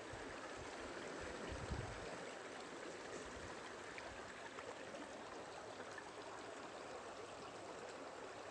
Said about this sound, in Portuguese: Sinta e perceba os elementos da mata. a água doce descendo da cachoeira.